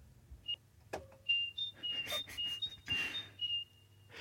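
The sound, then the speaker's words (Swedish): A person whistles a bird call, imitating a great tit: thin, high notes alternating between two pitches, repeated several times in a quick, even rhythm, against a faint background hum. “För att en, en talgoxe som jag tror att det ska härmas eh, Snyggt, alltså.”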